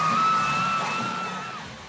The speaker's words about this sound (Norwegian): Sånn låt det da det plutselig oppsto panikk under …-konserten i Bergen på lørdag. Bandet spilte fra scenen og det nærmet seg slutten på konserten, men så kom en mann ut på scenen og begynte å spraye publikum med et brannslukkingsapparat.